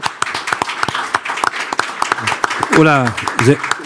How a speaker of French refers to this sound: Applaudissements